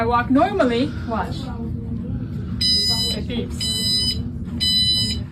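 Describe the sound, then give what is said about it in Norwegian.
A store security gate alarm beeps in three loud, shrill bursts of rapid high-pitched tones, each lasting under a second, over a noisy shop background where a voice is heard near the start. “Det her er en butikkansatt som har skjønt at det går an å komme seg gjennom de her eh, alarmene som er eh, ofte er i butikker.”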